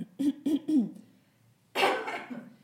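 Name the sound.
smoker's cough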